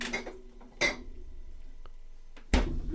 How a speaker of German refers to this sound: Ach so, ja, ein Bierchen. Werde mal aus dem Kühlschrank nehmen.